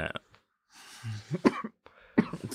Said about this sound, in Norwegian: Ja, jeg måtte bare hoste litt her. Jeg vet ikke, jeg har ikke hostet mange dager, og så plutselig kom jeg inn hit, og så skal jeg hoste.